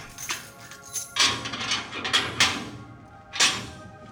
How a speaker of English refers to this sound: here while I unlock the door.